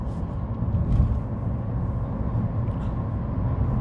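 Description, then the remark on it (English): Steady, low road rumble inside a car moving on the road in Denton, Texas, on the way to a convention, a constant deep drone with a faint hiss above it that holds an even loudness throughout, with no voices. “We are in Denton, Texas, on the road to the convention.”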